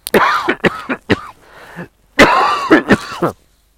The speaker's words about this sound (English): Just bear with me, just a got a cough.